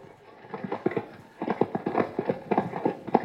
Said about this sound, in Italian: Non lo so. Andiamo a controllare. Galoppo!